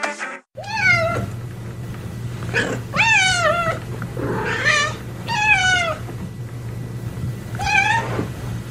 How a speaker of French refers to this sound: Voilà un chat qui miaule en attendant sa gamelle.